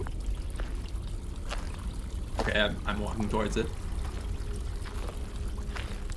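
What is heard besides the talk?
waterfall splashing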